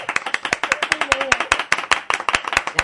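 A small studio audience applauds to welcome a new guest on the show, with brisk, irregular hand claps that overlap into a steady patter for about three seconds, fairly loud throughout, with a brief faint voice-like tone mid-way.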